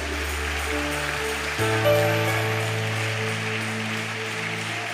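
An audience applauds in a steady, dense wash of clapping, with sustained keyboard chords holding underneath and shifting to a new, fuller chord partway through.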